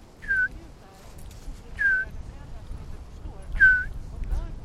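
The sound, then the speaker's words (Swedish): A person whistles an imitation of a bullfinch call: three short, soft, downward-sliding piping notes spaced evenly apart over a low background rumble. “Hör man ett sånt vissling, då ska man titta i trädtopparna här.”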